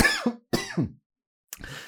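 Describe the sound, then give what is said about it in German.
Three harsh coughs: two in quick succession, a short pause, then a third, rough, with no talking. “Uh, jetzt muss ich auch husten.”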